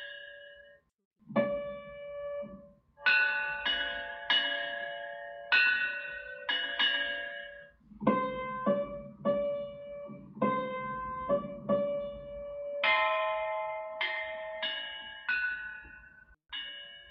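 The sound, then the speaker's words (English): Bianzhong bronze chime bells, a set of bells of different scales, struck with mallets in a slow melodic sequence, each strike a bright metallic tone with ringing overtones that decay, several notes overlapping, no voices. “The bells are played by mallets and create the sounds of seven musical scales, much like the piano.”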